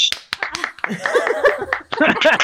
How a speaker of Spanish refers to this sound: Uh, le poníamos aplausos antes. Uh, así.